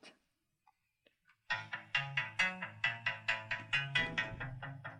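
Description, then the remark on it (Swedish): After a near-silent opening with a few faint clicks, a bright electronic tune kicks in with a steady, punchy beat and repeating synth notes, fairly loud, with no voices. “Nu ska ni lyssna på min favoritlika låt.”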